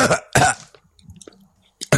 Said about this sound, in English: If you're gonna do that horrible uh, sniff and cough because you're ill, do it away from the mic, you absolute pillock.